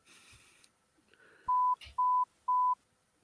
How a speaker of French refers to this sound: il a coupé le téléphone.